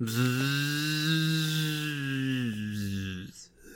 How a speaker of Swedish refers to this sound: Det var ju en himla moped som drog förbi.